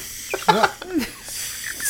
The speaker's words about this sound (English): that was a hell of a fart, dude. Dude, is it gonna stop? What the fuck? We're already off to a good start. Yeah. All right, no, that's funny. That was a funny bit, and I didn't even do that on purpose.